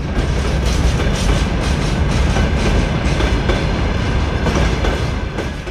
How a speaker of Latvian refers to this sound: Mēs redzam, ka tuvojās preču vilciens ar divām lielām lokomotīvēm